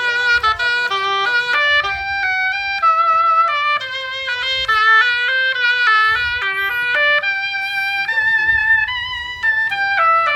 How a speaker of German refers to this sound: ist Oboist und er wird uns den Jingle live einspielen. Das dauert jetzt einen kleinen Augenblick, weil wir mit dem Mikrofon dahin müssen. Ähm, das geht jetzt schon, alles wunderbar. Dann hören wir jetzt den Jingle für Auf die Gartenbank.